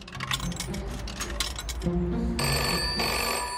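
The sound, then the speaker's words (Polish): A telephone rings with steady electronic tones that swell in near the end, following a few quick clinking, ticking taps over a low background hum. “z budki telefonicznej zadzwonił na policję”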